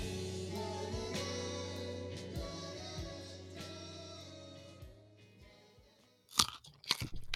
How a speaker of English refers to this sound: As society collapses all around us, crunching down on a, on a nice fresh carrot from the pesticide and, and soaked uh, grocery store shelves